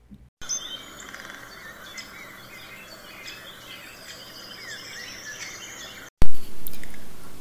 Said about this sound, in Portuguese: Presa no isolamento, liberta no canto dos pássaros. Talvez até os invejasse. Também queria sair voando.